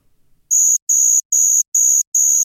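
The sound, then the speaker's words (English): Crickets chirping as a sound effect added in post-production: five evenly spaced, high-pitched buzzy chirps in a steady rhythm, loud and clear with no talking over them. “Q post production Q crickets.”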